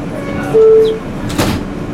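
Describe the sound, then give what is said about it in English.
Subway train sliding doors inside a rumbling carriage as a man boards: a short steady warning tone sounds, then a quick whooshing slide and soft thud as the doors close, with no talking. “A man boards the subway frantic.”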